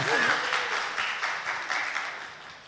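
A round of applause from a crowd: dense, steady clapping that slowly tapers off, with a brief vocal sound audible at the very start.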